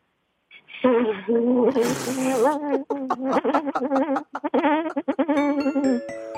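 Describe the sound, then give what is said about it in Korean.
A man's voice imitates a buzzing blowfly (dung fly), a loud, continuous nasal drone that warbles and wavers in pitch, breaks into a hissy burst, then stutters in quick fluttering pulses. “똥파리 다시 한번 들어볼게요.”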